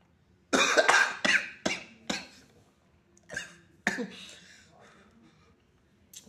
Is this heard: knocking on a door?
no